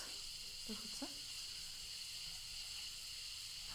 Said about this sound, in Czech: Protože tam je slyšet sprcha, protože další song se jmenuje ah, ….